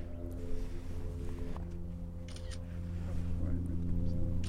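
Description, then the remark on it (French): An airplane drones overhead above agricultural countryside, its low, steady engine hum swelling slightly louder toward the end, with a few faint clicks and rustles in the foreground. “C'est un avion ça Oui, c'est un avion.”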